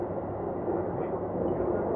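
A Keikyu 2100 series commuter train running on the Yokohama to Misakiguchi line, approaching Miurakaigan Station, its steady, dense rumble and rolling wheel noise filling the space at a constant level, with no talking.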